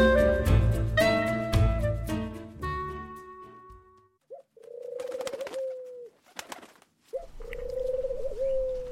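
pigeon cooing

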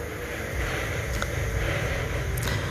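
noisy motorcycle engine

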